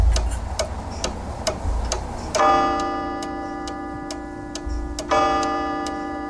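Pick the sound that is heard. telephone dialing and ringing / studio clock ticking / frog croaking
studio clock ticking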